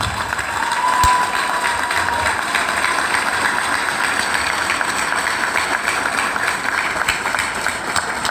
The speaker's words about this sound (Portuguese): E aí eu queria uma calorosa salva de palmas para a nossa equipe da CDHO aqui.